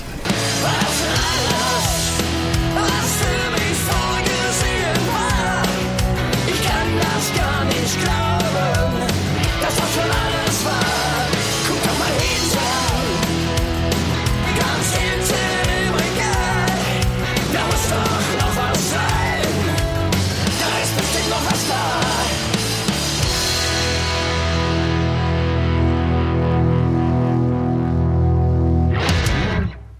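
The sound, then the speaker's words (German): A loud, dense rock track plays throughout with heavily distorted guitars and pounding drums, settling into a sustained, ringing chord near the end before cutting off abruptly. “Wer bis hierhin tapfer durchgehalten hat, wird mir anhand der ganzen Soundschnipsel ganz sicher beipflichten, was das für ein geiles Album geworden ist.”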